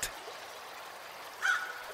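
A river flows steadily among large trees with a soft, continuous rushing hiss, fairly quiet and unbroken, while a brief bird-like call rises toward the end.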